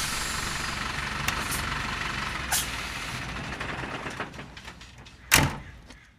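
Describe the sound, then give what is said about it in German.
A navy-blue 10-ton mobile library truck, decorated with graphics such as a dinosaur, opens its transparent sliding door with pneumatic hisses over steady engine rumble at a stop on Ratener Straße in a Dresden residential area, followed by clattering as metal folding steps swing down, ending in one loud burst of air. “der seit rund 30 Jahren mit dem LKW Bücher in Dresden verteilt, öffnet die transparente Schiebetür und klappt die metallene Falltreppe herunter.”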